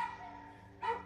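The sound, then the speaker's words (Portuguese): A female dog, no longer barking, whimpers and cries in a thin, drawn-out whine that swells into a sharper, louder yelp near the end, heard alone. “A cachorra já não latia mais, ela só chorava.”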